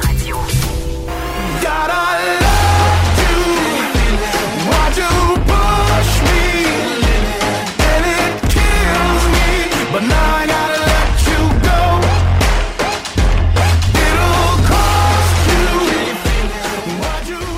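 A full, loud pop song plays continuously with steady beat, bass and bright layered instruments, broadcast on Cube Radio with no one talking over it.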